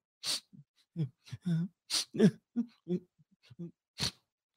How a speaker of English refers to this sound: Uh, obviously, she's crying, but she's trying to she's trying to cry without crying. Ah! So she's resorting to sniffling.